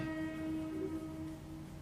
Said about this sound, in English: Um, that's the heavy goods train, which I'm just going to allow to pass now, so we'll cut a few seconds until it's out the way.